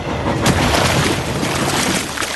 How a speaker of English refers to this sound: A large, fast engine thundered past and splashed through a big, muddy puddle.